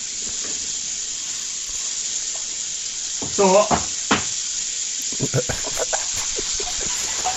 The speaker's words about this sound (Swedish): Ja, då får du sluta prata så ska jag bara fixa här lite snabbt. Jag fyller i lite vatten i den här.